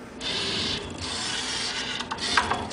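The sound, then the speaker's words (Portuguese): A Rhino industrial robot arm (Rhino is the commercial name), a close sibling of the Rhino teaching robot at Técnico, whirs steadily as its mechanism moves, with a hissing, grinding motor tone that shifts slightly, then a few sharp clicks and ticks near the end. “Bom, em boa verdade, este rino é um irmão ou um primo muito próximo do robô rino que existe no técnico, que já não está operacional e de que, infelizmente, não foi captado o som.”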